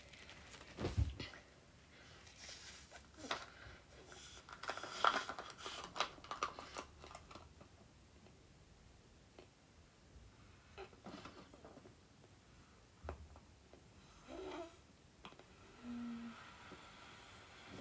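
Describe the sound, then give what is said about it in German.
Someone blowing up a balloon: a series of breathy, hissing puffs of air with rubbery crinkles, followed by a brief squeaky whine and a short low buzzing tone near the end. “Ich blase jetzt einen Luftballon.”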